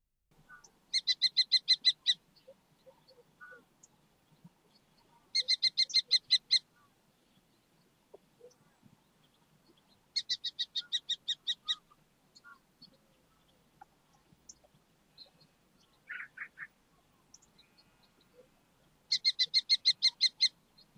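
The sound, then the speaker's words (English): A kestrel (Falco tinnunculus) gives four bursts of rapid, shrill kee-kee-kee calls, each about a second long and spaced several seconds apart, clear against a quiet background with no talking. “So you may have guessed, the first article I'm going to read to you is about the kestrel, uh, from Derbyshire Wildlife Trust's Winter magazine and written by George Bird.”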